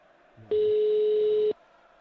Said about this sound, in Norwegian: for å være helt sikker, så ringer vi til henne nå.